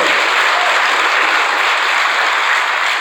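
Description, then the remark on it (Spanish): A crowd applauds for the Lord steadily, a dense, continuous wash of clapping that stays loud and even for a few seconds without any voices rising above it. “Denle el aplauso que se lo va a dar al Señor.”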